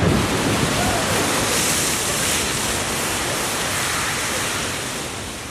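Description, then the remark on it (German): A loud, steady roar of rushing water and hissing steam from an erupting geyser, holding constant for several seconds before easing slightly at the end. “Manchmal hört man natürlich auch was, manchmal hört man Geräusche und oft genug sind das Geräusche, die man nicht sofort zuordnen kann. Ähm, zum Beispiel Geysire.”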